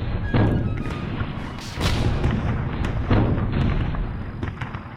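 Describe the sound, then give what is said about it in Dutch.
Heavy artillery bombardment of the besieged city of Maastricht by French revolutionary troops with about 140 guns in autumn 1794 rumbles continuously, with repeated deep booming blasts arriving every second or so over a dense, roaring low background. No one speaks. “Na 45 dagen en hevige bombardementen geeft de stad zich over.”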